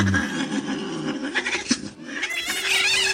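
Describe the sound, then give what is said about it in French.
A small cat vocalizes in drawn-out, wavering meows that rise and fall over a few seconds, fairly loud against a quiet background, as it comes into the middle of a table. “Mon petit chat arrive au milieu de la table.”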